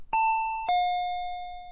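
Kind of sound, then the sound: household object, doorbell ringing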